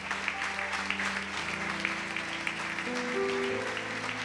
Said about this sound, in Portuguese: Você pode dar uma salva de palmas para Jesus aqui, bem forte. Aleluia.